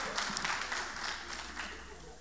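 A crowd applauds with a dense, steady wash of many hands clapping, moderately loud and sustained for a couple of seconds without a clear break.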